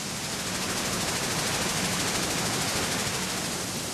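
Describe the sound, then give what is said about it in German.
Dense, steady industrial roar of the fully automatic gravel washing, crushing and screening plant of the firm Glück in Gräfelfing near Munich, turning raw gravel into sand, gravel and chippings: a broad hiss of rushing water and grinding rock with faint rapid rattling, continuous and loud throughout, with no voices. “Viele Arbeitsschritte sind nötig, um aus dem Rohkies Sand, Kies und Split zu machen. Er wird gewaschen, zerkleinert, gesiebt.”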